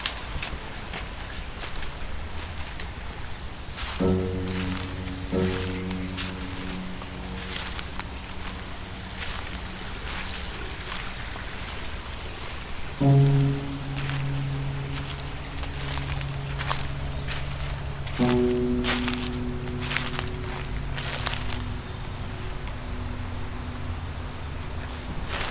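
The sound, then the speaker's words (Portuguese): Outdoor ambience in the Gulbenkian Garden with steady crunching footsteps and rustling leaves, while a low humming drone fades in and out. No one speaks. “O Jardim Gulbenkian está, como sabemos, cheio de sons, tantos sons vamos ouvir, mas se estivermos com muito cuidado, com muita atenção, até conseguimos cheirar a terra molhada, o musgo ou a água fresca a correr.”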